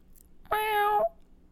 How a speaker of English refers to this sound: Is that a cat?